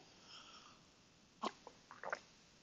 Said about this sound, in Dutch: Ik neem een slokje.